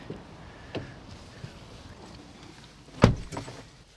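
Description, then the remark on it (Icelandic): Rustling and shuffling as people climb into a car beside the busy Reykjanesbraut road in Iceland, then one solid car door slam near the end, followed by a quieter interior hush with faint traffic outside. “Það ábyggilega skila sér betur þannig til hlustunda gerum það, vippum okkur hérna inn í bílinn við erum hérna við Reykjanesbröðina mikil umferð”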